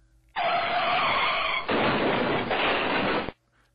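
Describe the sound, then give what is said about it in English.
A strange, loud crashing sound effect, a harsh, noisy burst lasting about three seconds with a screeching, skidding edge. It starts and cuts off abruptly, with no one talking. “okay, so that incredibly strange crashing sound effect you just heard was our uh, audio uh, representation of the last 15 minutes because in mid sentence the thing went kablooey again and this thick cloud of greasy black smoke”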